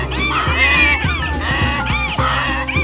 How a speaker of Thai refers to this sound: เจ้าสัตว์ทั้งสี่ภายใต้ผ้าคลุมสีขาวก็พร้อมใจกันกระแทกประตูอย่างรุนแรงวกมันพุ่งเข้ามาในตัวบ้าน พร้อมส่งเสียงร้องดังโหยหวน ไม่หยุดภายใต้ความมืด